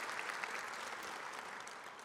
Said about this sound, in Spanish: Gracias tal les damos un aplauso a todos aquellos que nos están visitando? Gracias por estar con nosotros.